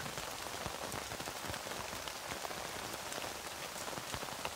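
Steady rain patters on a tent, a dense hiss of countless drops with occasional sharper individual taps scattered throughout. The sound is continuous and even, with no voices.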